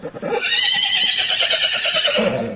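A horse lets out a loud, drawn-out whinny, its shrill call wavering and trembling for a couple of seconds before tapering off.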